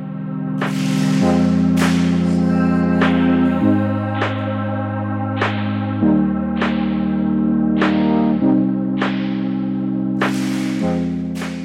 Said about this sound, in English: and you can just hear this very off time clap that happens. And yeah, we were going to talk a little bit about the reverb too that we gave it to you with. Um, it's the uh, Pro R from the FabFilter suite of reverbs.